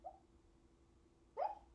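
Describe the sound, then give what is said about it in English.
A sleeping dog, dreaming, lets out two soft, high whimpers, brief and nasal, separated by more than a second of quiet over a low background hum. “Oh my gosh, my dog is sleeping and dreaming.”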